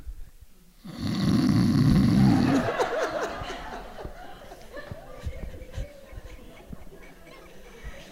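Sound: man imitating snoring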